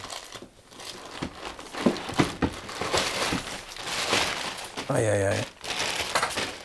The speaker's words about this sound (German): Reißt du deine Wohnung ab? Nee, das klingt immer nur so laut, aber ähm, habe hier eine Schublade, wo ich jetzt die, den Papiergedöns doch nochmal rein tue.